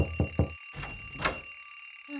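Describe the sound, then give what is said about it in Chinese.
A bell rings steadily at one o'clock in the morning, waking a family at home, with a bright, sustained metallic tone, joined by a few low thumps and clattering bursts near the start. No one speaks. “现在是凌晨一点钟，怎么会有铃声？”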